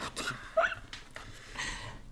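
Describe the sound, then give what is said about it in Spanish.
A dog whines in short, high-pitched squeaks mixed with quick, breathy panting, moderately quiet, with no one talking. “Me está llamando el perro.”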